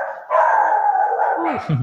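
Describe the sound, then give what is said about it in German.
The household's own dogs bark and howl in a sustained, loud outburst, a couple of animals vocalizing together with a long drawn-out whining cry that breaks into short yips near the end. “Das, das sind unsere Hunde, ja. Das sind auch noch unsere Hunde.”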